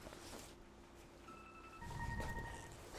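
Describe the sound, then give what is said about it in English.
A cell phone alarm, on the owner's first cell phone, newly got in California, rings with a short sequence of steady electronic tones that step up in pitch, fairly clear over a low rumble and faint background murmur. “I've never had a phone. I just got to California, a cell phone, and I put an alarm on for your show.”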